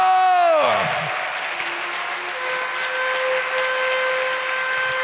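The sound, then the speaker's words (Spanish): An audience claps steadily for the Lord throughout, a dense, loud patter, opening with a sharp falling harmonic swoop and then sustained musical tones ringing over the applause. “Dele fuerte ese aplauso al Señor.”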